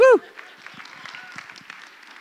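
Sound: audience applause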